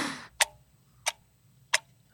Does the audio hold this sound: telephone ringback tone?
no